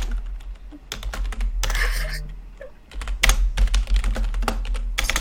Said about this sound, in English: typing.